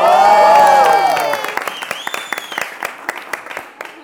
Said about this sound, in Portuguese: Pode deixar essas palmas que as pessoas são muito legais.